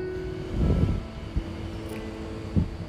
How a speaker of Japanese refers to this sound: うん、新聞配達のオートバイ、まあ、新聞配達というこのお仕事も本当にもう希少職業になりつつありますね